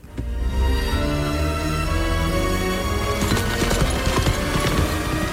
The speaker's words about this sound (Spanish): Así, con la llegada de un vaquero a caballo a un poblado del oeste que en realidad es uno de los decorados del desierto de tabernas